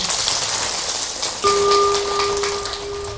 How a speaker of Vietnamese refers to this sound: nếu quý vị quan hệ với lời kêu gọi đó cho một tràng vỗ tay để kết thúc